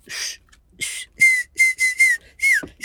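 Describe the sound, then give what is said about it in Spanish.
Someone whistles a quick run of about seven short, breathy notes, the final note bending downward; fairly loud, with no talking. “Silvi, silve, y no sé, como que no silban allá o no sé qué pedo.”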